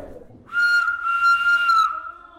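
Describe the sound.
A person whistles one long, steady, piercing note lasting nearly two seconds, imitating a train whistle, loud, then it fades out.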